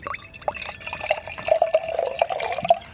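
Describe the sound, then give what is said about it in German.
Beer pours into a glass, a steady gurgling stream with bright splashy bubbling and small irregular glugs, continuing for a few seconds with no voices. “Jetzt hören wir hier das Bier.”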